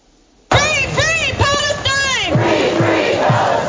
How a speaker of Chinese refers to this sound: 民众冒着雨大喊口号，在美国罗德岛州首府普洛威斯顿发起力挺巴勒斯坦的游行集会。